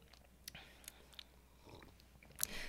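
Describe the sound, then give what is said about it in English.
Quiet sipping of coffee: a few soft mouth clicks and lip smacks, then a short slurping sip near the end, with no talking. “Cheers to our first coffee back.”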